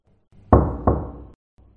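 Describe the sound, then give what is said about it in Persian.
Two knocks on the door of apartment number ten, given instead of ringing the doorbell, in quick succession, the first loud and sharp, the second softer, each ringing briefly before fading into quiet. “میرسید به پاگرد خانه و به جای اینکه زنگ در خانه را بزند، دو تا تقه اولی بلند و دومی آرام به در میزد و منتظر میایستاد تا در آپارتمان شماره ده باز شود”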